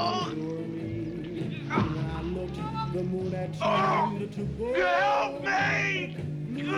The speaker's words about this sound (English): And the camera pans up, and you see the full moon, and the music gently changes and all of a sudden … starts screaming his fucking head off.